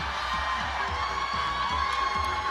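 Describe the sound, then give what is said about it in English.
A live crowd cheers and whoops loudly, a dense, sustained wall of voices with a few higher shrieks poking through, filling the whole stretch without a break. “a lot of, lot of, lot of there's a lot of old ladies in the crowd too then, apparently.”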